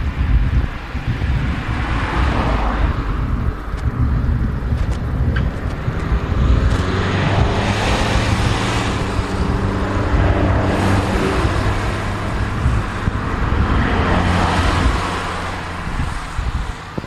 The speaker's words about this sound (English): Uh, oh, we're experiencing a lot of traffic here. Yeah, much more than I expected.